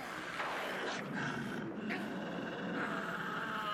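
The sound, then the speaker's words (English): A loud, rasping werewolf-style roar rumbles continuously for nearly four seconds, harsh, swelling slightly in spots without any break or other sounds. “Of course I'm a werewolf.”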